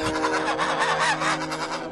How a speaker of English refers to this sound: The quacking echoed around him, louder and louder, and he covered his head with his hands.